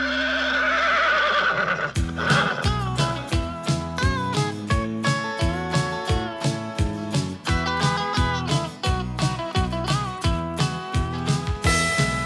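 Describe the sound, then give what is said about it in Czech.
A horse whinnies loudly at the start, then a steady, even clip-clop rhythm of hooves carries on, blended with a bright musical backing throughout. “Mám nejhoršího koně, co kdy chodil v okruhu stamil.”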